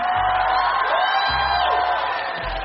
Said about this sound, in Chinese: 谢谢大家的这个这个这个这么热烈的灯光和掌声啊！但是啊，今年第五年了啊，我希望这个灯光和掌声都送给你们每一位自己，因为你们来了，我们才有今天晚上。